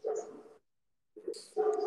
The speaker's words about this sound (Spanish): Eh, si escuchan a ladrar un perro, es Martín, que en algún momento se los presentaré.